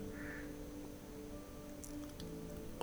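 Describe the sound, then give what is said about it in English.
A low, steady hum of falling water from waterfalls in a valley runs unbroken throughout, with a brief faint chirp near the start and a few soft clicks toward the end. “The humming of the waterfalls from this valley”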